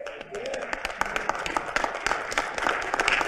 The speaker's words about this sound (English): Get up on your feet. I think we ought to give him the biggest hand clap of praise.